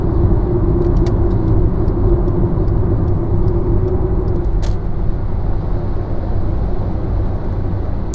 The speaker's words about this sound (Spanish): Antes os hablaba un poco del sonido en las carreteras de Estados Unidos. Era un poco similar a este, a que está sonando ahora. No sé si la grabadora logra recogerlo.